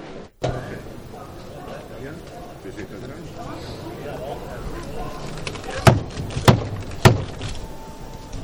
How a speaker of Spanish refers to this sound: como el hermano mayor de la Borquilla llamaba las puertas de Belén y San Roque